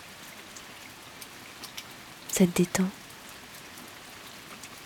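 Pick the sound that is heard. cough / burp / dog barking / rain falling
rain falling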